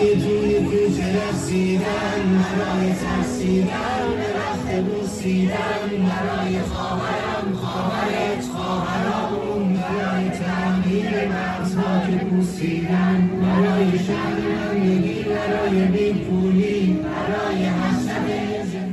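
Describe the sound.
A large crowd sings a protest song together in unison in the streets of Iran and other countries, many voices loud, the chant-like melody continuing steadily without pause, echoing outdoors.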